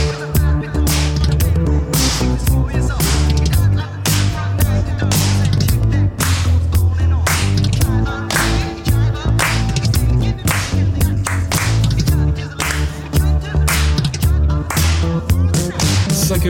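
A French-language pop song plays loudly and continuously, driven by a steady beat with sharp, snappy percussion hits over a full bass and chords; no talking over it.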